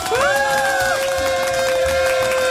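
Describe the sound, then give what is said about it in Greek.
A crowd applauds and cheers the entrance of a radio show's team, dense steady clapping filling the whole stretch, with a loud whistle-like tone sliding up early on and then holding steady over the noise. “Και βεβαίω να χειροκροτήσουμε την είσοδο τη ομάδα μα.”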